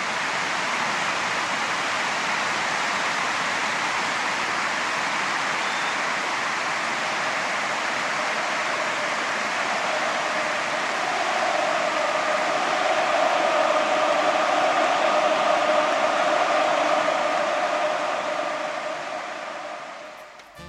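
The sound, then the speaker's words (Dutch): A large stadium crowd applauds and roars after Kruijf scores to make it 2-0 in the 14th minute, a dense, continuous wash of clapping and cheering that swells slightly before fading at the end. “14e minuut gaat in. Hier is het applaus.”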